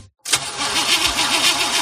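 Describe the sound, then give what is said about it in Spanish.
After a brief silence, a car's starter motor cranks the engine with a steady, rhythmic churning, fairly loud, as the engine struggles to catch. “¿Problemas con la batería de tu coche?”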